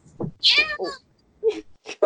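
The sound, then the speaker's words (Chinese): A cat that has run up beside a person lets out a single drawn-out, high, wavering meow at a mobile phone, with a whiny, moaning quality, followed by a few brief snatches of someone talking. “哎，他刚刚真的是冲到我的旁边来，对着手机喵了一声。”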